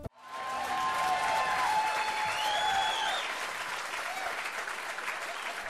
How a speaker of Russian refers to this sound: Э, аплодисменты.